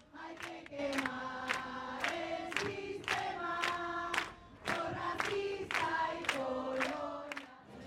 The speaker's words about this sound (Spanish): Los manifestantes iban cantando consignas y algunos me compartieron el por qué estaban ahí.